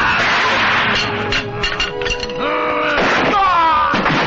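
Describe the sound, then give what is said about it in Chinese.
A door bursts open with a loud, clattering crash, followed by a flurry of thuds and clinking, breaking sounds, while voices cry out over the commotion. “你进来怎么不敲门呢？”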